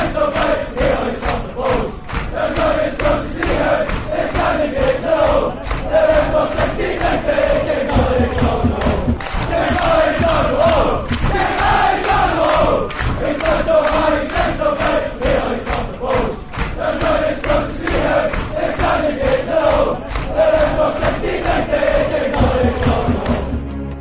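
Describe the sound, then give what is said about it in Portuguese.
A big football crowd sings the terrace chant King Billy's on the Wall together, a dense mass of voices carrying a steady tune loudly and continuously, with the sound of a packed stand around it. “Então a gente vai ouvir aí a música King Billy's é, On the Wall.”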